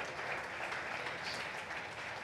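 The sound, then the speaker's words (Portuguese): A crowd applauds a couple steadily, many hands clapping in a dense, continuous wash of sound that holds at an even loudness throughout, with no talking heard. “Vamos aplaudir esse casal lindo.”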